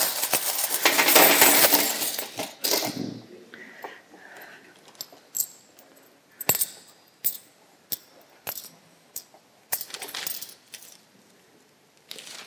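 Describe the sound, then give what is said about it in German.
A burst of jingling coins being poured or shuffled, then a steady series of individual sharp metallic clinks as coins are set down one by one while being counted for a household budget book, with no voices. “Oder viele Münzen, bis du das gezählt hast.”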